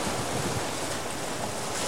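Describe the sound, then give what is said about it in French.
Steady wind rising over ocean surf at a beach, a dense, continuous rush of wave noise with gusts buffeting the microphone, fairly loud and unbroken throughout. “Le vent se lève,”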